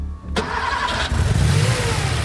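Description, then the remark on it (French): The car of Monsieur Niarlop, driven by his chauffeur, cranks and catches abruptly, then revs hard and roars as it pulls away in a hurry to take him home, loud, with a steady low rumble continuing. “Il en avait fait l'expérience et maintenant, cette voiture que vous voyez partir en catastrophe, la voiture de Monsieur Niarlop, conduite par son chauffeur,”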